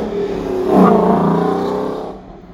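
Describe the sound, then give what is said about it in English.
A local race car driver's car engine revs loudly as it drives past, its pitch rising and then sweeping down as it pulls away over a couple of seconds. “fucking race car guys around here, man.”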